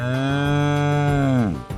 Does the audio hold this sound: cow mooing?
yes